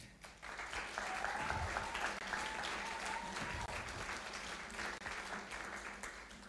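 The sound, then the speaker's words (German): An audience applauds the people being baptized at a baptism, a dense wash of many hands clapping that holds at an even level throughout, with a few faint tonal whistles or cheers rising briefly above it. “Lasst uns unsere Täuflinge auch ermutigen heute Morgen und ihnen einfach mal einen Applaus geben.”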